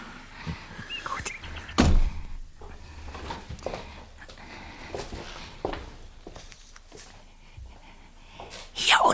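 A front door downstairs being unlocked with a larger, square key and opened: a sharp clunk of the lock, quiet rustling and faint handling noises, then another loud thump as the door swings.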